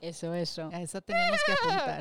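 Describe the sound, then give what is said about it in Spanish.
A person talks briefly, then lets out a loud, quavering high-pitched whinny with their voice, imitating a horse's neigh for about a second. “Bueno, eso fue un sonido de un... intento de caballo. eso fue como un unicornio cruzado con...”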